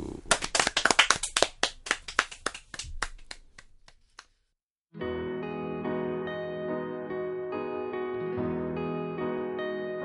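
A quick burst of hand claps from a few people, sharp and loud at first, then thinning out and fading over about four seconds before a sustained musical tone begins.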